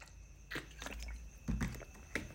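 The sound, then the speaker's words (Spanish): Quiet mouth sounds of someone sipping water: a few short wet slurps and a soft gulp spread over a couple of seconds, with no talking. “permíteme tantito en lo que, déjenme tomar tantita agua, un, un sorbo de agua, porque también ya se cansa un poquito la voz y hay que cuidarla.”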